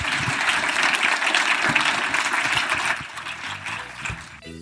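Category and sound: crowd, audience applause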